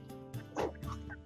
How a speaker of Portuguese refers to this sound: Você tá ouvindo o cachorro latindo pro panetone.